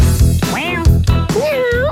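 A cat meows twice in quick succession, loud, each cry bending up and then down in pitch, over a dense, rumbling background.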